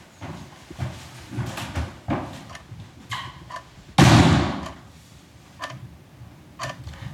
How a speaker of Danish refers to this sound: Klokken øh, er 5 minutter i 11, og døren er lige smækket af sig selv.